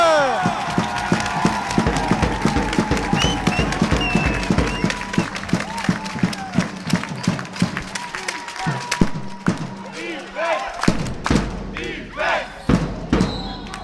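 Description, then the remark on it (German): A dense arena crowd cheers and roars continuously during the third quarter of a basketball game, with sharp thuds of a basketball bouncing on the court and squeaks cutting through, loud, with shouting voices throughout. “Doch so verkorkst die erste Hälfte war, umso schwungvoller haben die Geckos das dritte Viertel begonnen und schafften es nicht nur sich zu pushen, sondern auch das Publikum.”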